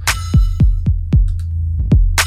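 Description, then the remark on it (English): Deep, booming bass thumps in a music mix being processed on a Core 1 Max with a modeled compressor, each one dropping in pitch, landing in a quick steady pulse over a sustained low rumble, with bright hiss bursts at the start and end. “That bass is really low.”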